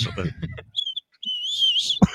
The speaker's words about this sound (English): I make fun of you, but I sometimes I do get like a whistle, a whistle in my nose or something.